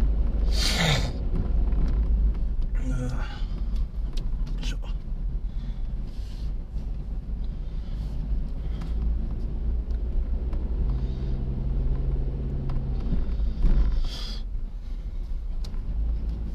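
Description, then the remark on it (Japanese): A car rolls slowly into a parking lot on a cold day, its steady low engine rumble filling the interior, with a few brief bumps and whooshes from tires and passing air along the way. “はい、はい、ようやく駐車場に入りました駐車場に入ったんで”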